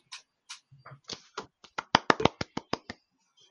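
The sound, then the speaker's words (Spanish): Brief, sparse applause from a few people: scattered sharp hand claps that pick up into a quicker, steadier run of about a dozen crisp claps before stopping. No talking over it. “Aplausos.”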